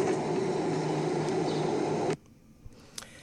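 A loud, steady burst of white noise hisses evenly for about two seconds, then cuts off abruptly into near silence broken by a couple of faint clicks.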